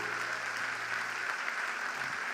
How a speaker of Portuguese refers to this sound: Ah, por favor, dê um aplauso ao Senhor.